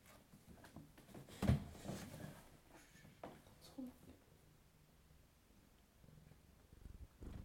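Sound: domestic cat purring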